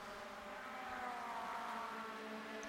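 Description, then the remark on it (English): The leading race cars in the final round of the 2023 Idemitsu Mazda MX-5 Cup pass with a steady, loud roar of engines and a high, buzzing whine that swells slightly midway, with no voices. “So through they come again, the leaders.”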